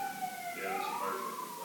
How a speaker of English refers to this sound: Those are fire trucks. It's either a bad wreck or a fire.